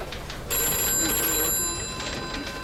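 A telephone rings with a bright, steady electronic trill starting shortly after the beginning, holding high sustained tones for about two seconds at moderate volume, with faint background murmur beneath, as McDonald's marketing head Barry Klein calls Keith Reinhardt, head of McDonald's advertising agency.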